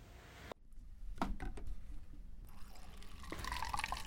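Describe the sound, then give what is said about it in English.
Lukewarm water pours from a water cooler into a styrofoam cup, a short stream with gurgling and splashing that shifts in pitch as the cup fills. No one speaks. “The hot water tab was broken at the water cooler, so Olivia settled for lukewarm”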